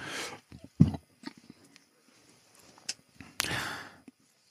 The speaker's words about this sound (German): Und ähm, der geht in etwa so, warte mal, ich muss mal ganz kurz mich nochmal räuspern.